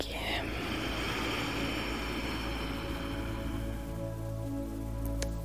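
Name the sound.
rain falling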